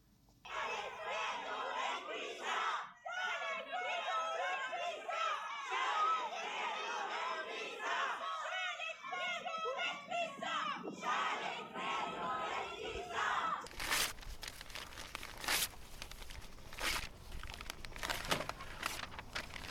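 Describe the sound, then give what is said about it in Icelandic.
A crowd of women on a march protesting Quran burnings chants and shouts together loudly for about fourteen seconds, then gives way to a rough, crackling, rustling noise of a Quran being rasped in Gothenburg, with scattered voices. “Já, við erum með smá hljóput þar sem við heyrum E, konurnar í göngunni, þau eru, ekki, þau eru að mótmæla kórana brennunum og að halda allar á kóranum.”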